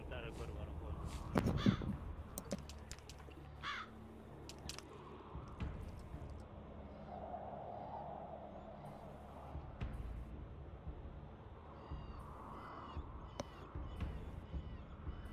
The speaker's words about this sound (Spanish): Y el cuervo, por supuesto. No puede faltar el cuervo en los juegos de Blizzard.